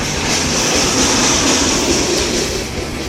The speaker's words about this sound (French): C'est un camion qui passait.